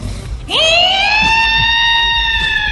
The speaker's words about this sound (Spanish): Llegó la ambulancia.